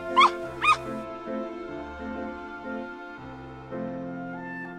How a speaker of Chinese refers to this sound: 听，小狗娜娜也在欢快的叫呢。